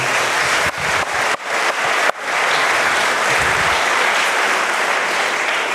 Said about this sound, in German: Hier ist ihr Applaus für diese beiden Instrumentalisten.